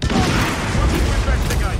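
A loud video game explosion in a German Let's Play, with a deep booming rumble and crackling debris, sustained for a couple of seconds, with no talking over it.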